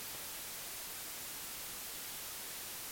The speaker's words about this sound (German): du hast ja ein solches Rauschen in deiner Spur